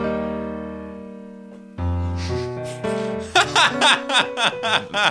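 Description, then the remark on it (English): A held piano chord fades, then a cat walks across the keyboard, pressing a few stray keys at uneven moments, like random steps, followed by bursts of laughter. “that is my cat walking on the keyboard no joke”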